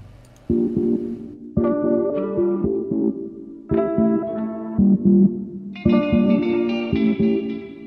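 Closing chords of a song ring out: a handful of sustained, heavily processed guitar-like chords struck one after another, each held and fading with echo, loud and with no voices.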